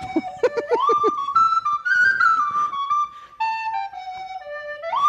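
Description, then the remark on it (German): A simple flute plays a slow, steady melody of long held notes that step up and down in pitch, fairly loud, with a few brief breathy bursts at the start. “Und es ist eine ganz einfache Flöte.”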